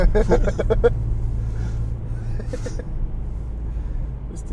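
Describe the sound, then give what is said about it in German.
Car doors opening, with a few sharp clunks and rattles near the start and another around the middle, over a steady low engine rumble inside the vehicle. “Türen aufgehen.”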